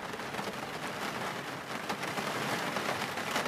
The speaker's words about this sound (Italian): Mentre la pioggia risuonava nell'umile casetta di legno costruita con grande impegno da Aliro